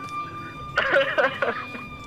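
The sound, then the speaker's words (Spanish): An emergency siren outside a house holds a steady, high wailing tone throughout, faint but continuous, while a voice briefly speaks over it in the middle. “está sonando una sirena fuera de mi casa, weón.”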